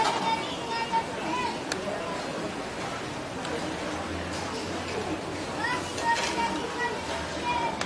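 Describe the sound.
A busy open-air hawker centre, a common people's eatery and food court, hums with overlapping chatter and voices, dishes and utensils clinking now and then, and a low steady background din throughout.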